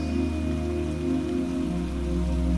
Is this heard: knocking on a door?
no